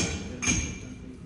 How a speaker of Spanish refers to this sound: Ok, tercer martillazo.